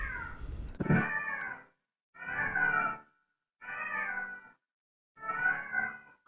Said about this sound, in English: Hold on. The cat's going off again, so the cat's going off, so I gotta do it.